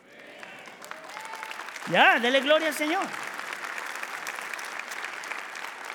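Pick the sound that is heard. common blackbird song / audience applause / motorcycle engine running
audience applause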